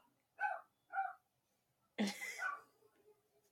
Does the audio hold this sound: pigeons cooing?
no